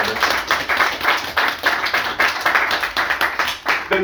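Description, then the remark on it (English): An audience applauds steadily, a dense wash of many hands clapping at a loud, even level with bright, crackly texture throughout. “before we start, everybody, give a man another round of applause”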